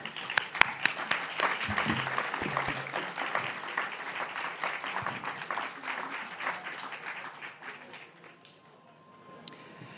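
An audience bursts into sustained applause, a dense wash of many hands clapping for around eight seconds before it thins out and fades, with a few scattered claps at the end.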